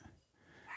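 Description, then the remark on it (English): A dog gives a low, rumbling growl that rises into a sharp bark at the end, all within a brief moment, with no one talking. “Um, excuse the dog”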